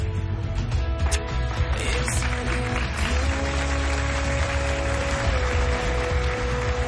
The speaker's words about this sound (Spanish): Todo el personal que hay por el vestíbulo aplaude a los novios.